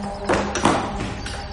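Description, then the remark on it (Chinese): A door is opened and shut: a few short wooden clunks and a dull thud, with a softer click near the end, over a low steady background hum. No voices. “这时，一个主意突然浮上心头，开门走了出去。”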